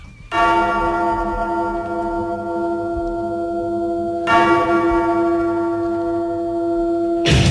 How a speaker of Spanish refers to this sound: Sonaban ahí unas campanas. Las campanas de la medianoche